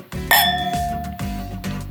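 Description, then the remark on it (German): Wine glasses touch once in a toast, giving a bright clink that leaves a clear, high ringing tone hanging and slowly fading over the next second. “Ja, dann stoßen wir nochmal an.”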